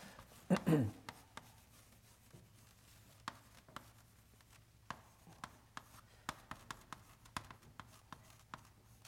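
Someone writes a name on a board: a brief vocal sound at the start, then a run of short, sharp taps and scratchy strokes in an irregular rhythm, fairly quiet.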